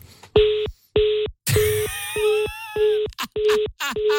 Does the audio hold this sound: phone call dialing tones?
yes